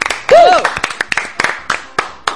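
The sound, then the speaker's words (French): The hosts clap their hands in applause in quick, fairly steady succession, about a dozen crisp claps from a small group, with a brief cheering voice near the start. “Franchement, on l'applaudit, on l'applaudit.”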